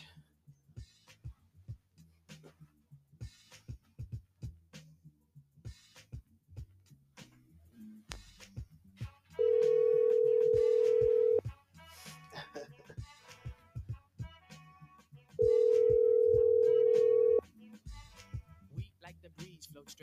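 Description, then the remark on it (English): An outgoing phone call rings twice, each a steady two-second electronic tone separated by a pause of several seconds, loud over background music turned down low and room noise. “All right, so let me get on the phone real quick.”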